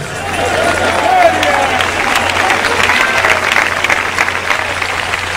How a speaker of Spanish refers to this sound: Cuando, aplauda, hermano, aplauda a todo el mundo. Porque aquí lo más lindo es, que estamos juntos unánimes.